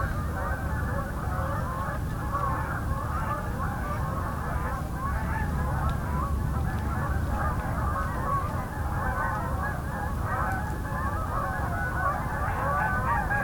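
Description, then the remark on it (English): A large incoming flock of Canada geese honks continuously overhead in flight, a dense, overlapping chorus of calls that stays loud and steady over a low rumbling background, with no one talking. “This is an incoming flight of Canada geese.”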